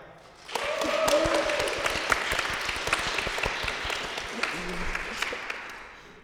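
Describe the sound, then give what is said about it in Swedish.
A warm round of audience applause starts abruptly and holds steady as a dense, crackling wash of many hands clapping, fairly loud, before tapering off toward the end. “Visst ska de få en varm applåd?”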